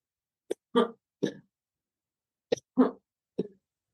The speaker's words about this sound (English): So, uh oh, I have to cough again. Hold on.